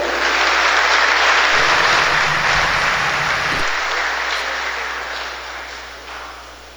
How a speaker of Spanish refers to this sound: Le recibimos con un fuerte aplauso, por favor.